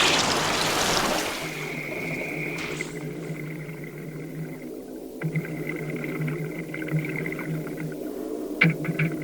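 A muffled underwater soundscape as divers with masks, mouthpieces and air tanks go under into grey water: a rushing splash of bubbles at first, then a steady low drone and a thin whine hanging in the water, with a brief knock near the end.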